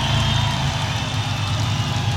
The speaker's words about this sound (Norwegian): Ja, det er jo en Spitfire-motor, det her. Det er det. Ekte saker.